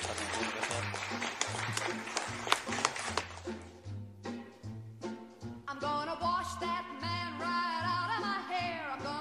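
An audience applauds in a dense, steady wash of clapping, busiest in the first few seconds, with a low rhythmic thrum underneath and brighter tonal sounds rising over it later.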